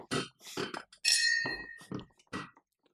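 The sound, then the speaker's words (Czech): A wine glass is set down with a bright clink after the wine in it is finished, its high ringing tone lingering briefly among several soft thunks and knocks. “Proto dopíjí e, tuto sklenici vína a možná si už další raději nenáleju.”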